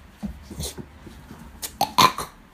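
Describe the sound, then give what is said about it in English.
A person makes a few short, croaky guttural noises imitating a frog, the last bursts louder and rougher than the soft grunts before them. “like a ribbit, ribbit.”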